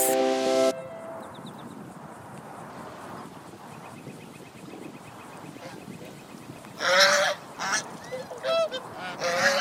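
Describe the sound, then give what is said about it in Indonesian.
A goose honks loudly several times in the last few seconds, harsh nasal calls in quick succession, after a quiet stretch opening with a brief tonal chime. “Suatu hari, seorang petani membawa seekor angsa pulang ke rumahnya.”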